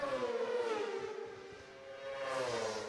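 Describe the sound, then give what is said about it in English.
Racing motorbikes in a race scream past, their high, whining engine note held steadily for a few seconds, dipping slightly in pitch and then rising again. Fairly loud, with no voices. “just hear those bikes go through.”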